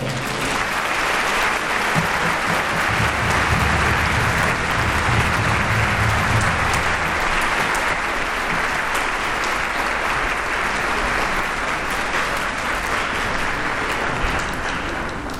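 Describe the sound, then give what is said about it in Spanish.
Loud, sustained applause from a large audience welcoming the artist Antonella Pomodoro before her performance of Sarasate's opus 20, a dense wash of clapping that holds steady at full strength for about fifteen seconds, with some cheering mixed in early on. “Recibámosla con un fuerte aplauso, por favor.”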